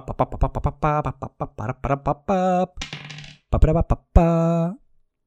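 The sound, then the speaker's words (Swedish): A die, rolled to choose a new Pokémon in a game challenge, rattles and clatters in a quick burst of bright clicks, followed by a few ringing tonal blips as it settles, landing on a four; no one speaks. “Jag slår min tärning.”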